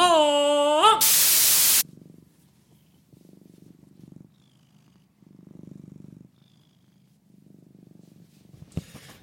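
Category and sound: animal, cat purring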